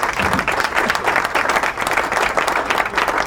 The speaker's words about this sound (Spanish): Primero, acá el título dice, y ahí va el aplauso, la viruela del mono no es por el momento una emergencia sanitaria según la OMS.